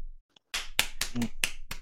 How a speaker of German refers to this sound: Musste einfach kurz erwähnt werden, weil Lübeck Legendenmannschaft. Wir klatschen alle für zwei Sekunden.